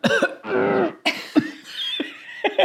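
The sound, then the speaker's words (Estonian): A person imitates the retching cough of a dog that feels sick and is vomiting: a quick series of harsh, throaty hacks and heaving gasps, fairly loud, with no speech around them. “kuulsid, et mingit jaa, et noh, tal on paha olla ja oksendab”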